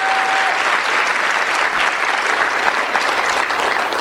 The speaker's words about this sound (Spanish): Eh, vamos a dar un aplauso, un aplauso fuerte, que se sienta.